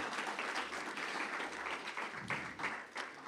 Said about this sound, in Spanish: Mire qué cosa más linda. No sé si usted le da un aplauso al Señor. Precioso el Señor.